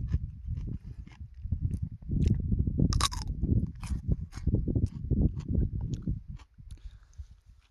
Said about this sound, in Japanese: 今回ね、行動食で丸ごときゅうり2本持ってきたんですよで今日1本食おうかなと思ってここでちょっとかじってみますうんうまきゅうりってこんなにうまかったっけ